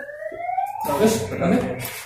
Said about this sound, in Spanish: Miren el apóstol que le puso la alarma al auto no quiere dejarlo